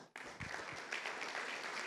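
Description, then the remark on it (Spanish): An audience bursts into sustained hand clapping, a dense wash of many overlapping claps at steady loudness for about two seconds, with no voices heard. “Junte sus palmas.”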